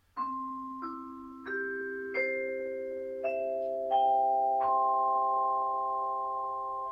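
A vibraphone played at home, recorded by a microphone placed in front of it, plays a slow rising sequence of about seven mallet strikes, each bright metallic tone ringing on and overlapping the others into a sustained, shimmering chord. No one speaks.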